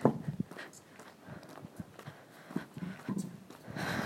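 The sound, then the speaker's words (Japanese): Footsteps walking outdoors to a convenience store in the rain, without an umbrella: a string of short, dull taps at a loose walking pace, moderately loud over a steady background hiss, with no one talking. “今えっ、ー、とアルバイトの応募書類を出しにコンビニへ向かってますなんか雨が降ってきちゃって傘を差してないんですけど雨が降ってきちゃって”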